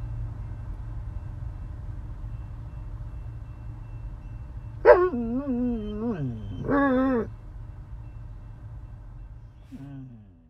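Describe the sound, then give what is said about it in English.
Two dogs, Nessa and Pluto, let out a few wavering, drawn-out howls and yowls at a passing train, over the steady low rumble of the train, with a brief fainter howl near the end. “Oh gosh, our dog Nessa always has something to say.”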